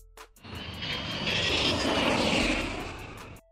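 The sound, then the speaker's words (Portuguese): An airplane passes overhead, its broad engine roar swelling to a loud peak midway and then easing off before it cuts out, with no voices present. “e ah, lá vem avião de e novo.”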